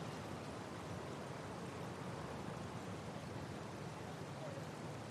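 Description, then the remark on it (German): A soft, steady rush of the Elbe river's current in the dark before dawn, heard from almost at the riverbank, continuous and even throughout without any distinct splashes or other sounds. “Nur das leise Rauschen der Strömung versichert uns, dass wir fast am Flussufer angekommen sind.”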